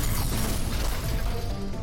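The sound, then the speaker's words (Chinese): A spider robot, Ghost One, in an exhibition hall, explodes and its legs give way, crashing to the floor: a heavy mechanical crash with a loud, continuous clatter of metal parts breaking apart and rattling across the floor, dense and noisy throughout, with no voices. “展厅里的人群中传出尖叫，同时蜘蛛机器人的腹部冒出白烟，机器脚也失去了力量，砰的一声碎落在地上。”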